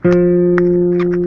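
A single clean fretted guitar note, played as an example in a guitar lesson, rings out loud and steady for over a second, sustaining evenly with a few faint clicks in the background and no voices.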